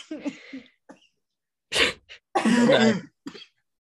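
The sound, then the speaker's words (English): A loud burst of coughing brought on by laughing hard: a few light hacks, then two strong harsh coughs with a longer ragged one, ending in a short throaty catch, with brief gaps between. “You shouldn't be coughing.”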